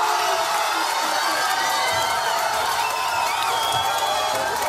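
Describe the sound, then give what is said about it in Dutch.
A pub crowd watching a football match on a big screen, roaring and cheering together, a dense, steady wall of excited voices with scattered shouts and whoops rising above it, loud throughout. “Kijk, wat normaal klonk het ongeveer zo.”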